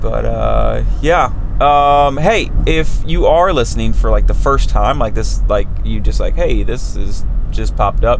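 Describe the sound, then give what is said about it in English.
A steady low rumble of a van interior on the road, driving home from work, runs continuously beneath a man talking into the microphone, the engine and road drone never letting up. “Um, uh, if you hear noise in the background uh, and jingling change in, in my uh, little change cup here in the car, I am driving on my way back home, uh, or driving home on my way back from work.”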